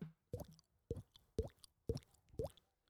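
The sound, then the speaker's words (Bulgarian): A person imitates water drops with the mouth: five clear, hollow plopping sounds at an even rhythm, fairly loud, with brief silences between them. “Аз мога да правя капка от вода.”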